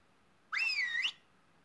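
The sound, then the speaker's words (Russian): A single short human whistle, about half a second long, rising then dipping and rising again in pitch. It is clear, with no voices around it. “Свистеть – это издавать вот такой звук.”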